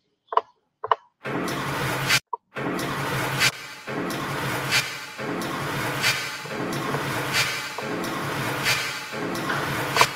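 A short rhythmic loop plays dry with a few clipped hits, then repeats drenched in reverb, its beats washing into a dense, sustained tail that keeps pulsing steadily.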